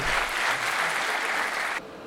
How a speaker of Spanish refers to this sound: Un fuerte aplauso para los esclavos, por favor.